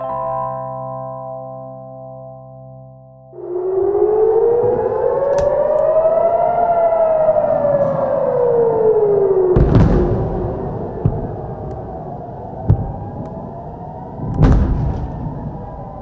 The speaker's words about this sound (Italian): Le sirene di allarme sono risuonate nella prima mattina di sabato 7 ottobre a nord di Tel Aviv.